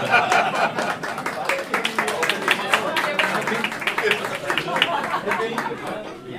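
A crowd claps steadily after a toast celebrating a completed torchlight procession, a dense patter of many hands, with chatter and a few chuckles mixed underneath throughout.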